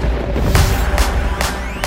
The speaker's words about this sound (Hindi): तभी एक तेज बिजली कड़की सारा आसमान अचानक से काला हो गया और फिर बारिश होने लगी